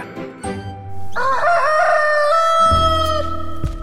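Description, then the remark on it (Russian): A Gallic rooster crows once, a loud, drawn-out cock-a-doodle-doo lasting about two seconds, with low sustained instrumental tones sounding before and beneath it. “Слышите? А вот и наш петушок прилетел Да-да, тот самый знаменитый гальский петух его можно встретить повсюду во Франции.”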